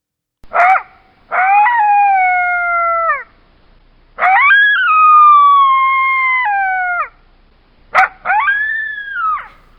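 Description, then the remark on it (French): A desert coyote gives a series of loud howls, each opening with a sharp yip before sliding into a long, wavering wail that falls in pitch, three calls in all with brief silences between. “Par exemple, imaginez chez vous, ou dans votre voiture, le cri du coyote du désert.”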